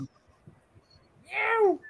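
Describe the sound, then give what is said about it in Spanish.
A single loud, harsh cat screech that slides downward in pitch breaks out after a quiet stretch of faint low murmuring, like one yowl from a cat fight. “Pero ¿y qué pasó aquí? Pelegato, mijo, que pelegato.”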